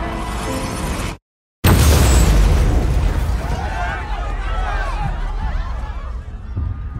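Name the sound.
bomb explosion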